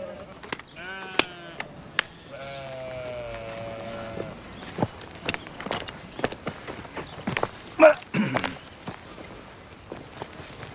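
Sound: sheep bleating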